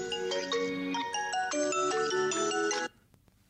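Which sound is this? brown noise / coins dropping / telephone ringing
telephone ringing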